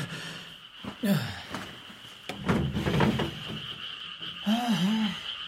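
Frogs croak in scattered, warbling bursts against a steady high-pitched insect drone, with soft rustling between the calls; a nighttime chorus with no talking.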